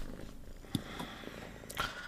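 A cat purrs softly, a low steady rumble with a faint rhythmic pulse, broken by a couple of brief clicks and rustles.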